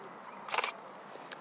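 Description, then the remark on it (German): A camera shutter clicks once sharply as a photo is taken in a botanical garden overgrown with grasses, followed a moment later by a fainter second click, against a quiet outdoor background. “Mache hier gerade auch noch mal eine Aufnahme.”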